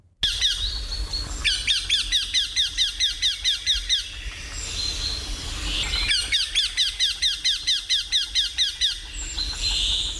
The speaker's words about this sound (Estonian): jah, tuleb tuttav ette küll ja kui uskumatult kõva hääl. lugedes veidi juurde, saame teada, et väänkaela seesugune laul on vanarahvagi tähelepanu pälvinud